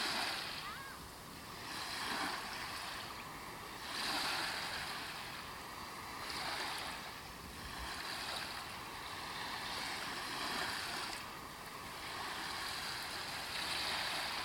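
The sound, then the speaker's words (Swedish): Sea waves surge in a steady rolling rhythm, each swell rising into a broad hiss of surf roughly every two to three seconds, continuous with no voices. “Stå stilla och hör vågornas brus.”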